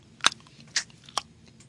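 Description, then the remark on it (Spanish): Three sharp tongue clicks spaced roughly half a second apart, each a crisp, bright snap standing alone against a quiet background with no talking. “Eso es un chasquido del origen de la raza humana.”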